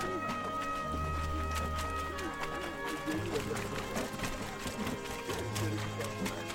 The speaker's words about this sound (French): Tu entends ce bruit C'est nos pieds qui écrasent ton raisin.